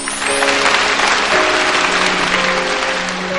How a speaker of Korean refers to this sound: 무슨 의미가 있을지는 모르겠지만 그 아이들에게 엄마들에게 아빠들에게 그런 박수 한번 보내주시기 바랍니다.